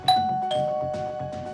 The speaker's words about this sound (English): I heard the doorbell,